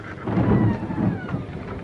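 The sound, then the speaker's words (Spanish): An approaching snowstorm rumbles with a deep, sustained roll of thunder, cold wind rushing steadily over it and a faint patter like rain. No one speaks. “La tormenta de nieve venir.”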